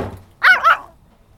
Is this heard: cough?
no